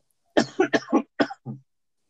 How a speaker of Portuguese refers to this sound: só um minutinho que eu vou tossir. Só um minutinho, peraí.